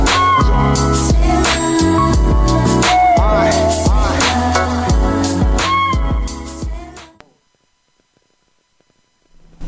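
A rap song plays loudly with a steady beat and vocals, then fades out abruptly about two-thirds of the way through, leaving near silence.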